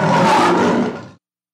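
A lion lets out a single loud roar, a deep rumbling growl lasting about a second before it cuts off into silence. No one speaks.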